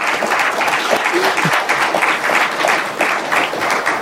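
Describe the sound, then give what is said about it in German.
Sustained audience applause for a woman at a literary discussion event, a dense steady clatter of many hands clapping at an even loudness for several seconds, with a faint voice briefly audible underneath. “Und jetzt nochmal wirklich an großen Applaus für die Frau, die drei Frauen, hier heute mit ersetzt hat.”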